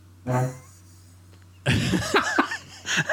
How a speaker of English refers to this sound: That's a chair, sorry.